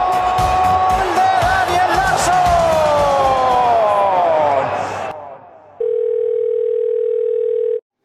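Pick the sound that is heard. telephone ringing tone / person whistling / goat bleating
telephone ringing tone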